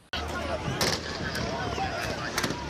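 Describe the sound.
Several sharp gunshots crack out at irregular intervals, a couple in quick succession near the end, over a dense, noisy background with indistinct voices, as two groups open fire on each other in Esenyurt, Istanbul, and bystanders flee in fear.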